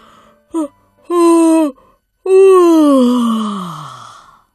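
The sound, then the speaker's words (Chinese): A voice imitates the big yawn of a little brown bear named Douglas from a deep, dark hole on a spring morning: a brief grunt, a held, steady moan, then a long, loud yawn whose pitch slides steadily downward before trailing off. “一个春日的早晨，从一个深深的黑洞下传来一声大大的哈欠。”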